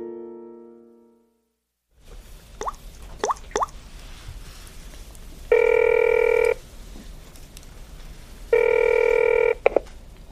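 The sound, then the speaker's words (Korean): A phone call is placed to an animal shelter: a quick series of short button-press tones, then two steady, buzzing ring tones about a second each, separated by a pause, with no one speaking. “아, 정 마음에 걸리면은 보호소에 전화해 보든가, 그럼.”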